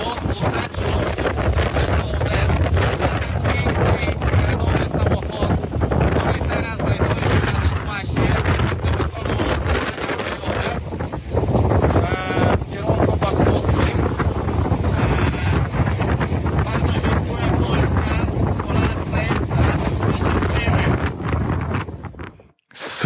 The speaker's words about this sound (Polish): słychać, że to warunki bardzo mocno e, polowe, że słychać, że wiał wiatr, słychać, że e, to taka autentyczna e, atmosfera gdzieś tam daleko na wschodzie Ukrainy